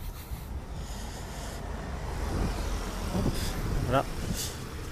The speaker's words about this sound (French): Encore une voiture qui va passer là.